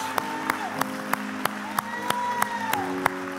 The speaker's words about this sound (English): Come on, let's give this King Jesus. Let's give this King Jesus the, the applause that he deserves. Let's give this King Jesus the praise that he deserves.